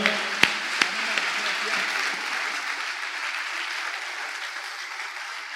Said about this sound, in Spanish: Aleluya, haré fuerte ese aplauso al Señor.